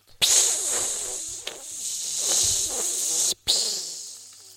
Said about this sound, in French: Mais son jour arrive. Elle se fait enfin préparer pour se faire jeter dans un bon bain d'huile bien bouillant.